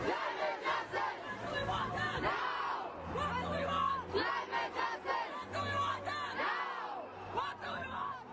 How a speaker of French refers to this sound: Si vous avez déjà participé à une marche euh, climatique, à une manifestation, vous avez peut-être entendu ce slogan.